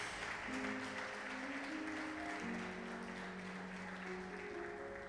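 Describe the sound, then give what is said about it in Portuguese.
A church audience applauds the Lord Jesus at the preacher's call, steadily for several seconds, a dense wash of clapping, while sustained organ or keyboard chords hold underneath. “Se você crê nisso, dá uma salva de palmas ao Senhor Jesus.”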